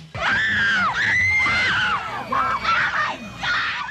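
A crowd of fans shrieking in high, piercing bursts, several voices overlapping in near-continuous screams with brief dips between waves.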